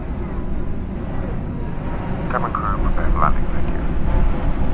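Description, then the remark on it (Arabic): US President Donald Trump's plane, a jet airplane, comes in to land at Ben Gurion Airport in Tel Aviv on 22 May 2017, the first direct flight between Saudi Arabia and Israel. Its engines give a loud, steady low roar that swells slightly toward the end, with faint indistinct voices briefly audible underneath. “في الثاني والعشرين من مايو أيار من عام 2017 حطت طائرة الرئيس الأمريكي دونالد ترامب في مطار بن غوريون في تل أبيب لقد كانت تلك أول رحلة مباشرة بين السعودية وإسرائيل”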